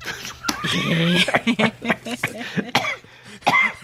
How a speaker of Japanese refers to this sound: 咳込んじゃった。むせちゃいましたよ。むせちゃった。